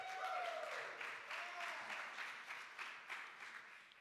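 A round of applause from a crowd, steady dense clapping sustained for several seconds with a faint tonal whistle early on, fairly quiet overall.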